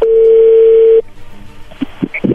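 A steady, loud telephone tone holds one pitch for about a second, then cuts off, leaving a quiet line with faint clicks and a few soft murmurs as the call connects.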